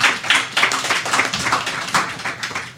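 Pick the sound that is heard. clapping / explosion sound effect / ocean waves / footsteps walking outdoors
clapping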